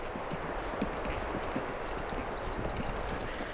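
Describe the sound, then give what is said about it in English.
A Nashville Warbler sings a quick series of about ten high, sweet, evenly spaced chirping notes, over a steady background of rustling and soft low thumps. “Good morning, Nashville Warbler.”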